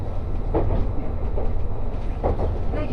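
A train running on rails on the Gono Line, the Resort Shirakami No. 4 between Ajigasawa and Fukaura, Japan: a steady low rumble with periodic clattering bursts as the wheels pass rail joints, continuous and fairly loud, with no talking.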